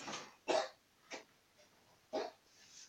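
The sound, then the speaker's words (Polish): A dog barks a few times in short, sharp bursts with uneven gaps between them, sounding fairly quiet against a faint background hiss. “Pies jest cwany, kurde.”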